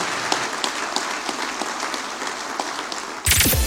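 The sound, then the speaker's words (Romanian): An audience applauds the team of a DGFM radio morning show in a dense, steady wash of many hands clapping for about three seconds, with no voices. A sudden, louder burst of music then cuts in. “v-aș ruga să aplaudăm echipa.”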